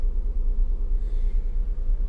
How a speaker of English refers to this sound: Giving the car a little start to make sure I run the engine for a few minutes